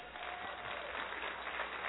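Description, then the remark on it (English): A crowd applauds to honor the senior pastor and his wife, a steady dense wash of many hands clapping at a constant, fairly loud level throughout, with no pauses and no voices standing out. “a great applause”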